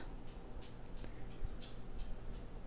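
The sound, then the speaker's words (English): Light, steady clicking of the claws of a dog named Bronx walking around on a hard floor, a rapid walking rhythm of soft ticks over a low background hum, with no one speaking. “My other dog is walking around, and you can hear the clickety clack of his paws.”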